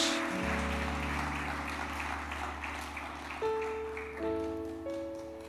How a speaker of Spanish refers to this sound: Ahora dale palmas de alabanza a tu Dios. Fuerte tu adoración a tu Dios.